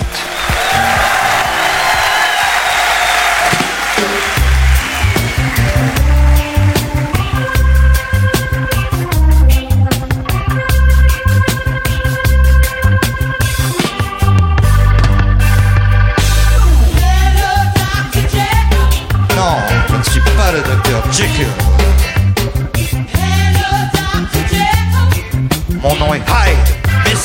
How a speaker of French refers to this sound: On écoute ce titre euh, joué euh, version reggae au Palace en 79.